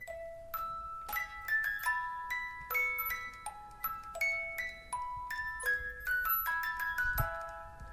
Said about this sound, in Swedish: då har jag köpt en liten speldosa som spelar Vivaldis Våren